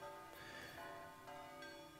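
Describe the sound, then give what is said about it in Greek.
Church bells peal steadily, with several fresh strikes layered over a ringing wash of overlapping tones. The sound is fairly loud and continuous, with no voices. “Πώς να μην βάλεις καμπάνες.”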